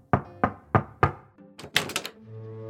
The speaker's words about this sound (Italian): A noi chi interessa è quello che sta dietro quella porta di legno massiccio. Howard Schultz, che ignaro del personaggio che sta per incontrare, bussa timidamente alla sua porta.